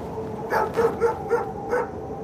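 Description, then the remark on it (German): Sled dogs on an expedition in the Antarctic ice give about five quick, whiny yelps and short barks in an uneven series, over a steady low background hiss with no voices. “Die Hunde haben heute Abend ihr letztes Futter bekommen also müssen wir weiter, weil viel von ihnen abhängt.”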